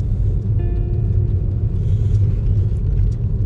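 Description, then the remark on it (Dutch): A steady, deep engine rumble from inside a moving car drones on without a break, with a faint higher whine joining partway through. No one speaks. “En ehm, Oh, voornamelijk, voornamelijk eh, opgenomen in de auto.”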